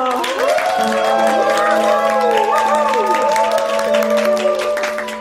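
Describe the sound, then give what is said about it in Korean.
A large audience at a Christmas event in a mountain temple claps steadily while voices cheer and whoop throughout, welcoming a performance by thirty children; the loud, dense applause holds for several seconds before easing slightly at the end. “자, 그럼 저 서른 명의 아기 천사님들이 준비한 공연을 시작하겠습니다. 큰 박수로 맞아들 주십시오.”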